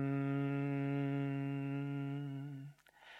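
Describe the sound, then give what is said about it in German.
A single low, steady hum held loud for nearly three seconds on one exhaled breath, like a bee's buzz, during the Bhramari (bee) yoga breathing exercise, then trailing off into a brief soft breath noise. “Atmest summend aus.”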